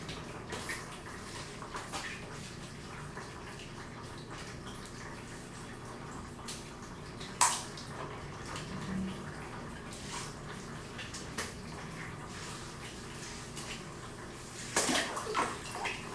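Bath water sloshes and trickles steadily in a tub as a child is bathed, broken by a couple of sharper splashes partway through and near the end. No voices are heard.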